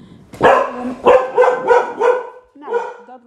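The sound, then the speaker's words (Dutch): A dog barks in a quick run of about six loud barks, evenly spaced, followed by a brief pause and one more bark at the end. “Nou, ondertussen werden we dus even lekker gestoord door de hond.”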